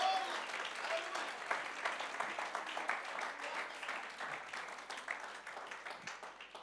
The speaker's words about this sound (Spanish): Vamos, aplaude fuerte al Señor, hermano.